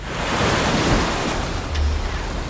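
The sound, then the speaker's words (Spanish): Rough sea waves churn and crash steadily in fog near the port of New York, where a steamship has run aground, a dense roaring wash with gusts of wind buffeting the microphone and a deep low rumble swelling briefly near the end. “La niebla y el mar revuelto provocan cierta incertidumbre que con premura el capitán de la embarcación se encarga de disipar.”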